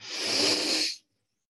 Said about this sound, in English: I'll just lead us through box breathing because I'm obsessed with it. Inhale.